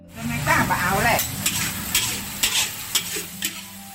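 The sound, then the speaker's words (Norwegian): Busy cooking sounds in the kitchen of a family restaurant: a steady sizzle of frying with repeated sharp clanks of a utensil stirring in a pan, fairly loud, with no talking. “På dagtid så jobber han på kjøkkenet i familiens restaurant.”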